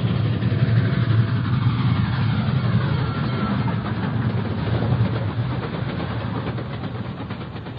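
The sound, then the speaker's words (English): A heavy, continuous mechanical roar with deep rumbling low end, loud and steady throughout: an approaching train rushing along the tracks toward a person lying on them, with no voices. “Then dimly I can make out an approaching roar, another train heading right for me.”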